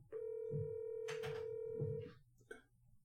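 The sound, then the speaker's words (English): A steady telephone dial tone hums for about two seconds over low background rumble as an outgoing call is placed, broken by a short burst of rustling noise, then cuts off before a brief click. “We were trying to call him before we started the podcast, and motherfucker just doesn't answer the phone.”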